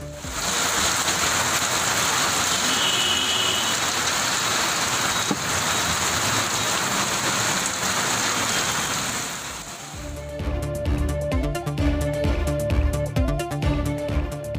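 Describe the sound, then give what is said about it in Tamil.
Steady, dense rain falls in Tamil Nadu, easing the summer heat, pouring down with a constant hiss for about ten seconds, then gives way to a rhythmic music bed. “தமிழகத்தின் பல்வேறு பகுதிகளில் மழை பொழிவு கோடை வெயிலுக்கு இதமளிப்பதாக பொதுமக்கள் மகிழ்ச்சி”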